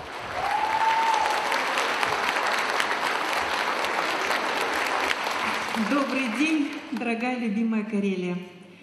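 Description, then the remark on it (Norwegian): An audience in a run-down concert hall in Petrozavodsk, Russia, claps loudly for the leadership of the opposition party Yabloko in a dense, steady wash of applause for about six seconds. Then a voice begins speaking as the clapping thins out underneath. “I byens nedslitte konsertsal klappes det også.”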